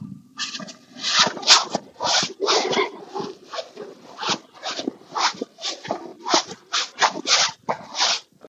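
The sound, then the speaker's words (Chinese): Footsteps crunch through snow on a snow-covered path in Beijing after heavy snowfall, in cold weather, at a steady walking pace, roughly two per second, each step a dry, gritty crackle of moderate loudness, with no voices. “这条路都是雪，所以刚才就是我踩在雪、踩在雪上的声音。”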